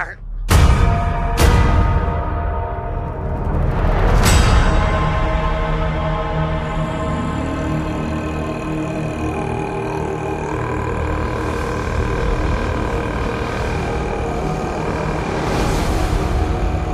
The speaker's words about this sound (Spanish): Vamos a ver cómo os decía el tráiler de Andor y lo comentamos luego a la vuelta.